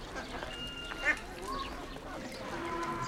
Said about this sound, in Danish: Ænder og snadrer i de mudrede vandhuller.